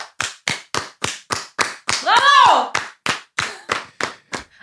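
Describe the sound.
A steady, even run of loud, sharp hand claps, roughly three per second, with one voice letting out a rising-and-falling whoop partway through.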